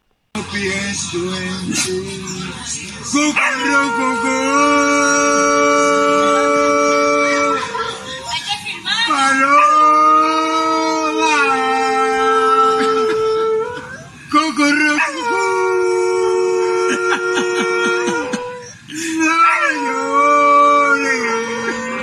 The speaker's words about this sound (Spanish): ¿Quién canta mejor, el hombre o el perro?